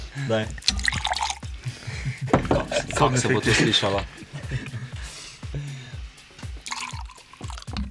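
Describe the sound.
J.J. Whiteley London Dry Gin is poured into a glass in a few short splashing bursts while people keep talking over the trickle of liquid.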